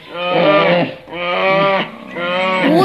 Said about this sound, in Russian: мамочки, медведи, здравствуйте